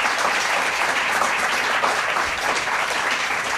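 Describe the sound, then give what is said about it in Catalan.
Steady applause from a crowd for Gerard Romero, dense continuous clapping that stays loud and even throughout with no voices standing out. “Un aplaudiment pel Gerard, sisplau.”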